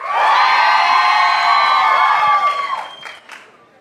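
audience cheering and applauding

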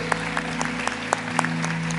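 audience applauding visitors

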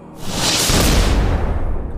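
small explosion

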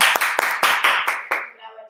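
applause

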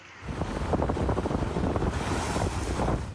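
storm wind

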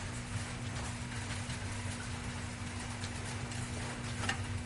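heavy rain

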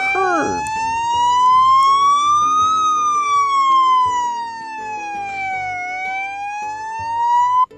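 police car siren approaching

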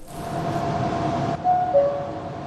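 subway train running

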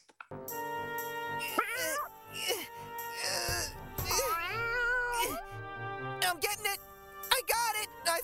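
cat meowing

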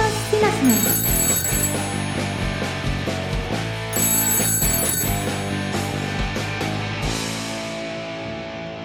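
telephone ringing

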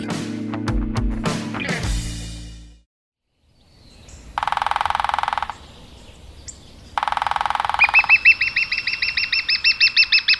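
lesser spotted woodpecker call

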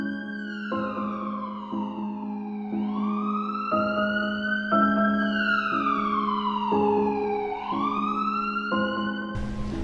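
ambulance siren

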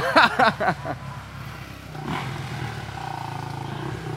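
motorcycles passing

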